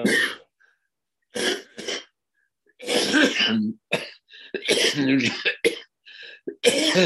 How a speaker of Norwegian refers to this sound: Unnskyld meg. Litt hosteanfall.